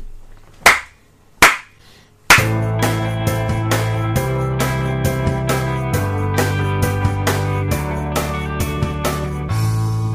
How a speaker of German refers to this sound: mir ist völlig bewusst, dass du kein Klatschen zur Synchronisation brauchst, weil es hier nur eine Tonspur gibt. Ich werde aus traditionellen Gründen jetzt aber trotzdem klatschen.